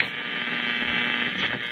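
Steady, band-limited radio static hisses continuously at an even, fairly loud level, a flat crackly interference noise with no voices or breaks.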